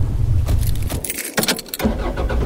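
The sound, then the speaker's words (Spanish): Car sounds: a steady low engine rumble as the engine starts, with keys jangling and a couple of sharp clunks, like doors shutting, in the middle. No one speaks. “Jimena, sube al coche.”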